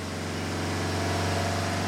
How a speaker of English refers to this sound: Then he heard the Lexus engine rev loudly.